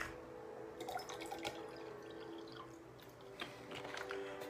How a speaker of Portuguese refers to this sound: Só um minutinho, deixa eu encher o copo com água aqui, porque eu também vou beber a água que vou frutificar.